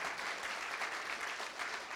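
Audience applause fills the whole stretch, a steady, dense patter of many hands clapping at once, moderately loud and even in intensity, with no voices standing out over it.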